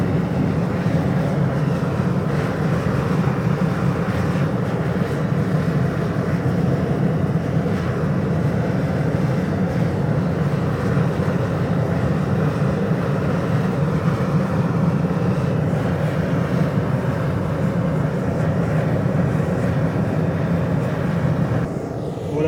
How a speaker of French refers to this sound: Il y a un, il a un vent très très fort au sommet là.